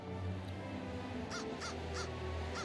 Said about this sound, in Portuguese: Eles não escutam o crá, crá de um corvo vindo de dentro da minha garganta.